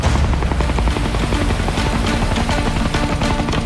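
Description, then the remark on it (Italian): A rescue helicopter roars, its rotor thumping in a rapid, steady chop beneath a loud engine whine that fills the whole moment without letup. “Hai sentito? Un elicottero!”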